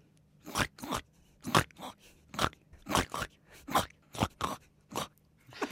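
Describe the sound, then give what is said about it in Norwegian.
A person imitates a pig with a series of about a dozen short, raspy snorting grunts in an uneven, fairly quick rhythm, moderately loud, with no talking. “Du skal få å starte å være gris.”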